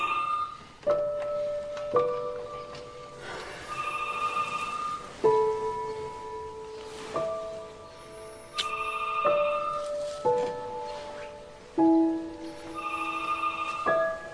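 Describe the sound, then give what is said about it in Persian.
A phone ringtone plays a repeating melodic pattern of bright electronic tones, cycling several times at a steady pace with no voices over it. “یک تلفن علکی میگیم به من برو جواب بده یه وقت اینا باشه.”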